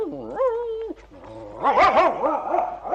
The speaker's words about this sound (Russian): Собака в страшном волнении.